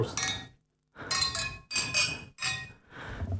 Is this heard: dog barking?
no